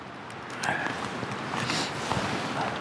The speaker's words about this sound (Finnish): ei ole ainakaan hiljasta kuin myllykoskella, kun tuuli suhisoo.